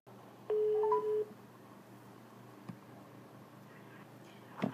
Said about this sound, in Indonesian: jadi kita coba telepon mereka langsung ya